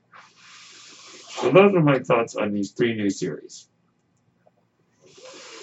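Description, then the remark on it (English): A breathing ventilator gives a soft, steady airy hiss, moderately quiet, fading in before a man speaks briefly and returning once he stops. “That noise you are hearing is my ventilator.”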